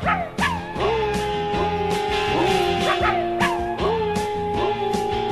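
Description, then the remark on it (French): A dog barks and yips repeatedly, with sharp high-pitched cries coming in quick, uneven bursts, some rising into whiny squeals, loud throughout. “Couché Non mais oh”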